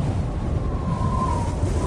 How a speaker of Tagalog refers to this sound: Maya-maya ay umihip ang malakas na hangin.